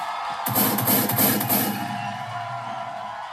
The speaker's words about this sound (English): Can't hold the applause for too long, gotta let it off.